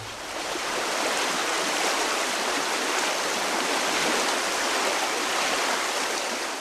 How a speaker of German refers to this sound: Schon seit dem Mittelalter rauscht Wasser durch Augsburg, so viel wie in kaum einer anderen Stadt. Speziell im Handwerkerviertel hat fast jede Straße ihren eigenen Kanal. Es gibt in Augsburg 70 Kilometer Lechkanäle. Aus den Alpen kommt dieses Wasser